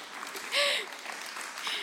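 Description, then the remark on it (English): A short, soft round of applause for talk show contestants: a dense patter of clapping that swells briefly near the middle, then thins out to lighter, scattered claps before ending. “Round of applause for our talk show contestants today.”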